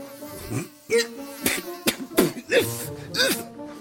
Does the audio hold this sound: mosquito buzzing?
yes